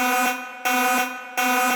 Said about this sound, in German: Spoiler-Alarm!